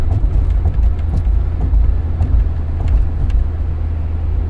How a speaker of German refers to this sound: hier im Auto und wir können das Fenster nicht runter machen, weil es einfach zu laut wäre